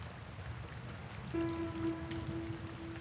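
Steady rain patters on a surface with an even hiss throughout. Midway through, a sustained, buzzy droning tone enters and holds over the rain until the end.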